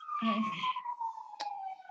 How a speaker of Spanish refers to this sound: ¿Se escucha esa sirena por ahí? Sí. pero no importa. Está pasando por aquí un ambulancia.